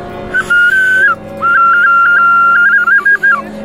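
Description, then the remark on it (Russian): A small rooster-shaped clay toy whistle is blown twice: a short steady high note, a brief pause, then a longer loud tone broken by quick warbling flutters near the end. “Или вот петушок, вот он играет, да, вот он.”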